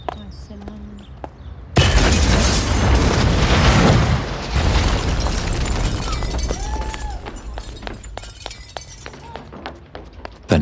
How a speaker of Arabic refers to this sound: انفجرت سيارة مفخخة أمام منزلها الباب مال البيت الأساسية هي حديد كانت الباب طارت كسرت الجام مال المطبخ ودخلت للمطبخ